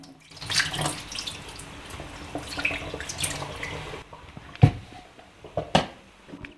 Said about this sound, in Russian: Вначале я набираю воду. Э, воду набираю из-под крана. Я ей доверяю. в любом случае она кипит. Теперь переливаю ее в чайник.